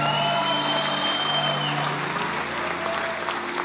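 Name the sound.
audience applauding and cheering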